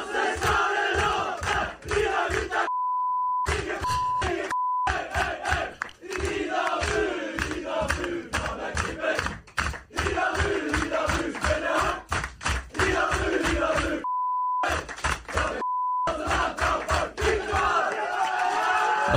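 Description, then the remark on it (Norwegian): A loud crowd of young men chants a rowdy, very old song, and the singing drops out twice for steady censor bleeps, each a few seconds long, before the chanting carries on. “jeg, jeg, jeg, måtte pipe veldig mye der.”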